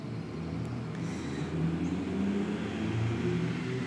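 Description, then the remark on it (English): Low, rumbling road traffic from many heavy trucks driving by on a street, a steady engine drone that swells slightly midway, heard from inside an office on that street at moderate volume with no talking. “And I'm in an office on a street where a lot of trucks are driving by right now.”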